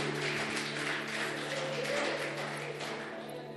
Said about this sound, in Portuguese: Você pode aplaudir bem forte o nome do Senhor. Aleluia, aleluia.